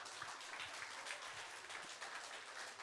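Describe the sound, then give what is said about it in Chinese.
An audience claps steadily, a dense wash of many hands with a crisp, bright crackle that holds at an even level throughout, with no voices over it. “掌声呐、啊！”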